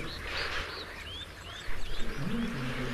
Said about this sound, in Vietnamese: Tiếng kêu vọng đến từ khu vực Hà Lưu, gần đàn Hà Mã. Trên thực tế, đó chính là nguồn gốc của những tiếng ồn, một bữa tiệc Hà Mã.